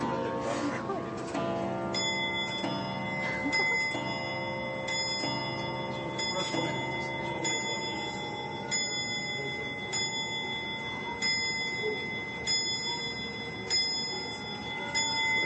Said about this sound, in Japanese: ここはですね動いてる状態で展示してるのが最大の特徴なんですですから私のおすすめは午前中に行ってほしいなぜなら10時11時12時そうこんなふうに鐘の音が鳴るからなんです